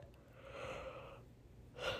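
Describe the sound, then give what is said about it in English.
A soft, breathy yawn: a long airy inhale lasting about a second, a short pause, then a brief breathy exhale. Quiet, with no talking. “Sorry, I keep yawning.”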